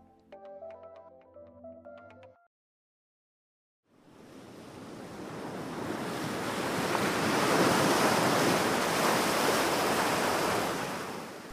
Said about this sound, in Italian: Il mare, attorno alla sua amata Lampedusa, è calmo e sfoggia colori intensi dal bianco al blu profondo.